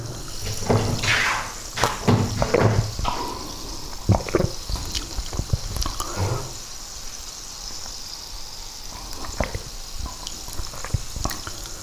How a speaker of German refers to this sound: So, Kaffee. Wasser. und erstmal einen Schluck Wasser nehmen.